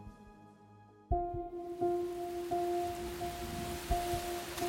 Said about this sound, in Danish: Regnen pisker ned, og vinden rusker kraftigt i træerne, da en ung kvinde bevæger sig afsted alene ud af en bakket og snoet landevej.